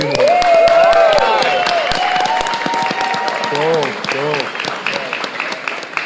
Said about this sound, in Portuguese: É uma salva de palmas para nós todos aí.